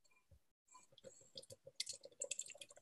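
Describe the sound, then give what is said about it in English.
Beer pouring into a glass: a brief click and short pause, then a run of gurgling splashes with a rising, crackling fizz of bubbles. No one speaks. “Can we pour it now, please?”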